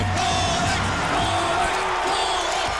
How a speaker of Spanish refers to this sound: la afición enloquece. Todos gritan.